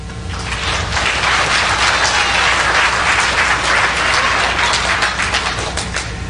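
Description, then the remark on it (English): Loud, sustained applause from a large audience answering a question about whether they have seen a film, many hands clapping at once in a dense, steady wash of sound for several seconds without any talking. “But I think I heard just about every applause in this place.”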